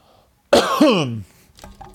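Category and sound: human body sound, cough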